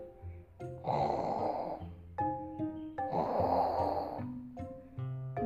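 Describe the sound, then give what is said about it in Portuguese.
A voice imitates a grandmother's loud snoring: two long, rasping snores, each followed by a shorter voiced breath, in a slow, steady rhythm. “Em cima de uma avó roncando.”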